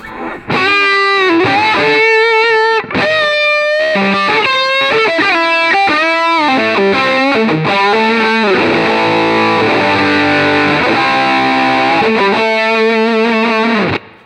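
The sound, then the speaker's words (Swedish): A heavily distorted electric guitar played through a pedal with the gain maxed, playing loud, saturated chords and sustained notes with thick, buzzing overdrive that stays dense and compressed throughout, with no talking. “Ska vi testa att maxa gainen en gång?”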